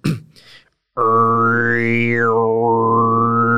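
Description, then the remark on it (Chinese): After a brief breathy sound, a voice holds a loud, steady low drone in khoomei throat-singing style, as practised by some ethnic groups of northwest China, with a whistling overtone above it that rises, then falls and settles into a sustained tone. “中国西北那边有些族群他们会呼麦，然后呼麦的声音就是”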